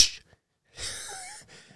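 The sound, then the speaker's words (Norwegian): A person imitates heavy breathing: a short breathy puff, a pause, then a long, loud, rasping exhale with a brief catch at the end. “Ja, bare si Eller puster tungt, så snur folk seg bare Hysj!”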